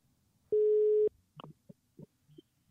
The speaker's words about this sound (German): Und wir können diesen Anruf sofort auf das Mischpult legen. Ihr hört es tuten im Hintergrund.